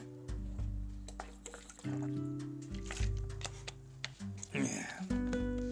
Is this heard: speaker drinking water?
yes